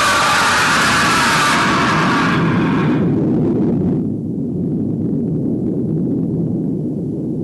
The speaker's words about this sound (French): Bon sang, l'hélicoptère il a explosé l'hélicoptère hein, hein, hein. Comment vais-je faire pour partir L'hélicoptère a explosé, bon sang.